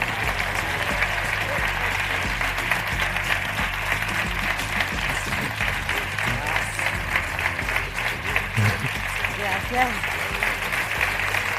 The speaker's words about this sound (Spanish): Así que recibamos en este escenario a Ignacio del Moral, guionista, y a las estrellas de la serie, Carmen Climent, Pablo Rivero, Irene Visedo, Imanol Arias y Ana Duato. Un fuerte aplauso.